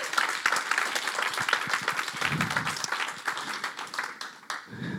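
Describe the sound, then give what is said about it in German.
An audience applauds steadily, many hands clapping in a dense, continuous patter at a fairly loud level, with a few faint voices mixed in before it begins to thin out near the end. “Ihr dürft gerne auch einen Applaus geben.”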